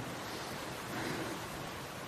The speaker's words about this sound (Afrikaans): En dis hoekom die water nie meer so hard vir my klink nie.